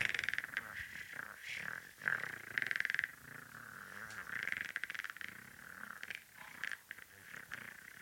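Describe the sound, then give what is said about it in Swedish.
A person imitates a velociraptor call, a raspy, rattling screech held and wavering for several seconds, breaking into a few shorter croaky bursts with no talking. “Men det låter som Velociraptorn.”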